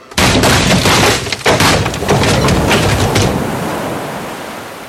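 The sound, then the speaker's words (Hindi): Ocean waves crash loudly against an old ship, a broad roaring wash that surges twice in quick succession and then slowly recedes into a fading hiss of foam. “पता नहीं कितना पुराना शिप था पता नहीं कितने वक्त से समंदर की लहरों की मार खा रहा था ताश के पत्तों के ढेर की तरह चरमरा के बिखर गया”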